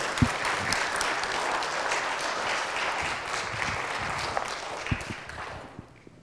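A steady round of applause from a group, dense clapping holding at an even level for about five seconds before tapering off at the end.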